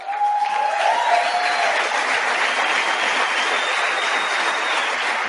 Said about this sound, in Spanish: Y yo quiero que le demos un aplauso. ¿Dónde está?